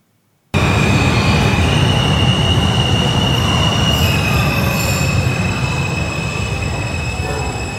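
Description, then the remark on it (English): A Brooklyn-bound 5 express subway train rumbles along at steady loudness, its wheels letting out a sustained high-pitched squeal over the dense low roar of the cars on the track. “This is a Brooklyn bound 5 express train.”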